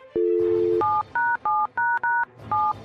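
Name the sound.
telephone number being dialed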